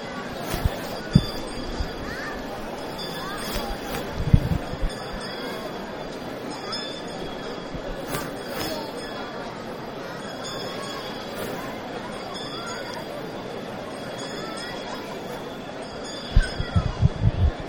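Processional hand bells rung by the muñidor, a brotherhood member in statute dress, calling for silence as the Hermandad de la Soledad procession passes through the streets of Jaén on Good Friday. They ring in steady, regularly spaced bursts of bright metallic tones over a continuous crowd murmur, with a few sharper knocks near the start and end.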